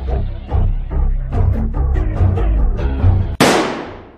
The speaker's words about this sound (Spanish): Carga el arma y con un solo disparo en la nuca lo mata.